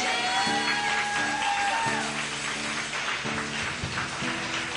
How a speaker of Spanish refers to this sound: Denle un aplauso al Rey de Reyes.